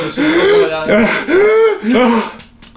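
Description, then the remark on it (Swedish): Loud fits of coughing and strained, wheezing gasps for air, several voiced bursts in quick succession, with no words spoken. “Och där jag kan inte andas, hjälp mig.”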